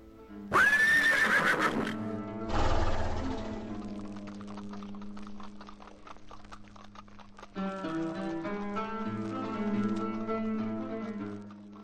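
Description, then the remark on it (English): A horse whinnies loudly near the start, followed by a second rough burst, then steady rhythmic hoofbeats as three horsemen ride off to hunt, beneath sustained background music. No one speaks. “For the amusement of his guest, the Sultan commanded his three best horsemen ride off and hunt down the most dangerous creature that they could find, and then return before sunset to show off their prize.”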